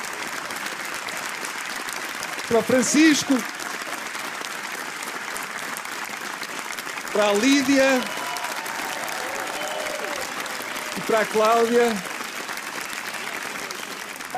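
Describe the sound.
Steady audience applause runs through the whole stretch, a dense crackle of many hands clapping, while a voice calls out over it in three short bursts.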